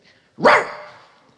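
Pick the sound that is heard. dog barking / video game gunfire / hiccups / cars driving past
dog barking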